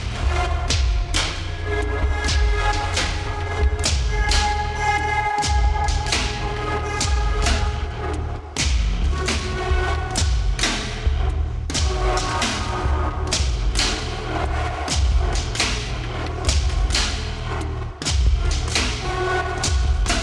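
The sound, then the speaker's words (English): Experimental electronic music in five-four time, with loud, punchy percussive thumps recurring over sustained tonal layers and a dense, buzzy texture, playing continuously with no voices. “what what ended up becoming this record was to to work outside of uh, of, of a four four meter, which is say you know a, a standard uh, time signature and so this this piece of music is in uh, it's in five.”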